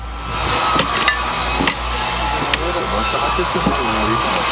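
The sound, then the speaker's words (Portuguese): Several sharp hammer blows bang against a small wooden door at irregular intervals as police break its latch, while voices talk over them and a low engine rumble continues underneath. “Eles não conseguem quebrar o cadeado, então usam um pé de cabra, depois um martelo, tudo isso para quebrar a tranca da portinha de madeira.”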